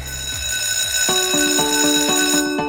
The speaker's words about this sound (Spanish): Tal cual, pues suena el timbre, significa que la clase ya comienza.